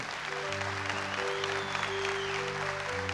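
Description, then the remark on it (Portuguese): An audience applauds in a steady, dense wash of clapping that fills the whole clip, with sustained low keyboard chords holding underneath. “Pode aplaudir você que me ameaçou.”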